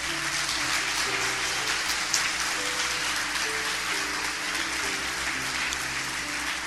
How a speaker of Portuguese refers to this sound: Aplauda, Senhor Jesus.